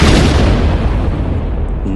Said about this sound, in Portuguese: E nisso ele começa, uma luz começa a brilhar no, no pulso dele. E ela aumenta, aumenta de tamanho. E um grande clarão e uma explosão acontece